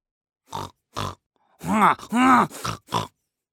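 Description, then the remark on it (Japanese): A voice imitates a pig, making two short grunts followed by a quick run of longer, drawn-out oinks and a couple of final snorts, fairly loud with no other sounds. “突然無線機から誰かの鳴き声が聞こえてきました わかったぞワリ君は今豚さんのお花の中にいるんだよ”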